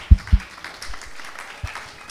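A church audience claps to the Lord during a morning sermon, opening with a couple of sharp, heavy claps before settling into a scattered, steady patter of lighter applause at moderate volume, with no one speaking over it.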